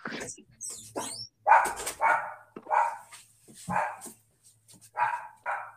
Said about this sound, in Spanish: perdón si escuchas a mi perro ladrar, déjame, le voy a abrir la puerta.